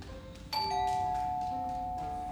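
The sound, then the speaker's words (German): A doorbell chime rings once at three in the morning with a bright, sudden strike, its tones lingering and slowly fading over a faint background hum. No one speaks. “Die werden weiter klingeln.”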